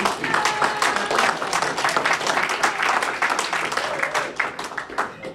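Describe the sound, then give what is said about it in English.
A church audience applauds steadily for long-time members of its fellowship, many hands clapping in a dense, sustained wash of sound at an even volume throughout. “Can we give a hand for”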